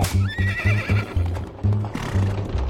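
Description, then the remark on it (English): A horse pulling a hansom cab on 57th Street in New York whinnies with a high, wavering neigh while its hooves clip-clop in a steady rhythm that continues after the call fades. “is flying down the steps of his townhouse on 57th Street and pushing his way through a throng of carol singers to flag down a horse drawn hansom cab.”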